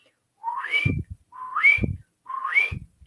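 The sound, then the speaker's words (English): A person facing east whistles three times, each whistle sliding upward from a low tone to a high one, evenly spaced with short pauses between, clear with no talking. “You're going to face the east, and you're going to whistle three times.”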